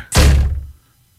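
A single heavy thud as a woman leaving the house walks straight into a glass patio door that had just been washed, a sudden loud bang with a deep resonant boom that fades out quickly. No voices.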